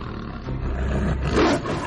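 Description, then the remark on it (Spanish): A fierce, rumbling roar swells and peaks before trailing off, sounding muffled, coming from the other side of a door where a soft whimper has turned into the roar. “Antes de que hubiera decidido qué hacer con aquel extraño visitante llegado de la noche, el suave gemido al otro lado de la puerta se convirtió en un rugido feroz.”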